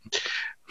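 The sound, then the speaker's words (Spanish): A single sneeze in the booth: a short catch of breath, then a sharp, hissing burst of air that trails off within half a second. No one speaks. “Acá en, la cabina estaban estornudas, no se preocupe.”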